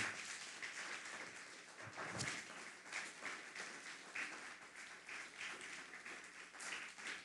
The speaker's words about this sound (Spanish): Entonces aquí, aplaudan, denle un fuerte aplauso al Eterno, no se ponga triste.